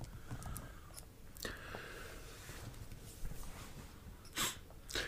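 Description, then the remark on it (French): A short run of sneezes, with two sharp bursts a few seconds apart and some snuffling and breathing in between. “Bah déjà, euh, excuse-moi, j'ai eu une petite série d'éternuements et du coup j'ai la voix un peu trois changeante, un petit peu emboucanée quoi, pour parler plus clairement.”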